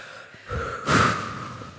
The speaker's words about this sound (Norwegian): Ah, vi må bare ta en, jeg føler vi må ta en rolig sånn pust. sånn der